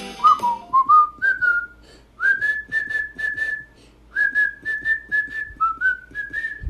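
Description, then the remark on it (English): Someone whistles a cheerful tune into a phone, a string of sliding, held notes in short phrases with brief pauses, slightly harsh and breathy through the line, with no talking. “Whistling's not a good idea into the phone, probably.”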